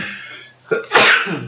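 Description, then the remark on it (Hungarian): A single loud sneeze: a brief breathy intake followed by a sharp, explosive burst of air, with no talking during it. “Bocsánat. Egészségedre.”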